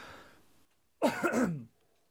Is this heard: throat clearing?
yes